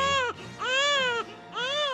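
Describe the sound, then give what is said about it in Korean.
A newborn baby wails in three long, rising-and-falling cries separated by brief gasping pauses, loud with no one speaking; a baby with blood type B born in February 1970 at a maternity hospital in Gwangjang-dong, Seoul. “서기 1970년 2월 서울시 광장동의 어느 산부인과에서 아차산의 전기를 받은 B형 혈액형의 아기가 태어났으니.”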